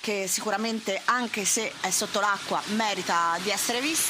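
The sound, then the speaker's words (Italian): Steady hiss of tyres on a wet road as cars keep passing in front of the speakers, heard from under a shelter, runs beneath a man speaking, a continuous splashy wash with no distinct individual passes. “E continuano a passare macchine davanti a noi, quindi il rumore che sentite è proprio quello delle macchine, perché stiamo sotto una tettoia accampati.”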